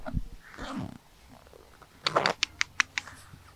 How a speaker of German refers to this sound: Jetzt klettert sie hier so den Käfig hoch. Mit ihren Krallen.